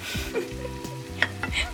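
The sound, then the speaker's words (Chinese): A seafood pancake with vegetables sizzles in a frying pan on a gas stove after being flipped, a steady, even hiss broken by a few sharp scrapes and clinks of a utensil against the pan, over a low, constant hum. “好，那我们翻过来之后呢，大概也是要让它煎个三分钟到五分钟左右，因为我们有蔬菜嘛，所以如果你今天蔬菜量稍微比较多，我会建议你稍微锅盖一下，让它焖熟。”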